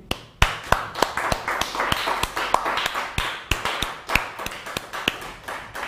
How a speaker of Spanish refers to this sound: Así que vamos a otorgarle un fuerte aplauso a Hashem.